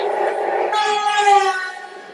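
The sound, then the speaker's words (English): A train carriage rolls along with a steady rumble, joined midway by a bright, sustained metallic whine that swells and then fades back into the running noise. “So basically, to, to explain, uh, they're going on the train,”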